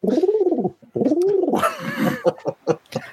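Pigeon cooing: two drawn-out, rising-and-falling coos, then a rougher, throaty stretch and a few short clipped coos in quick succession, with no one talking.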